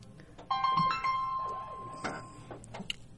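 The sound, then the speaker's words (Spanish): An electronic telephone ringtone sounds once, a bright, steady tonal chime lasting a couple of seconds with a few short melodic blips. “perdonen el teléfono.”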